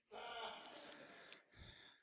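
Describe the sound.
A voice mimics a person snoring in bed: a long, raspy, breathy snort followed by a shorter rumbling intake, loud and alone with no talking over it.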